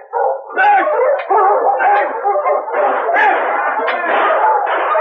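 Sled dogs bark and yip excitedly in a loud, unbroken chorus, high-pitched cries and yelps overlapping one another for several seconds without a pause.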